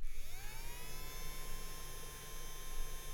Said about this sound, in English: Right, is that blowing on me? That is blowing on you right now. So what would that be for? When you've got a wet Oh, Finger? it's a nail dryer. Oh. Yes. It's for drying your nails.